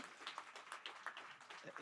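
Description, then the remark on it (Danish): An audience applauds indoors at a chilly hall at OsloMet in Oslo: a quiet, steady patter of many hands clapping, irregular and dense, with no single clap standing out. “Det er litt kjølig her inne, så det er bare å klappe i vei.”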